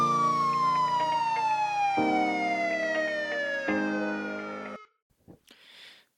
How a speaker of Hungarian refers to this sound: Mi történik, amikor megszólal a sziréna?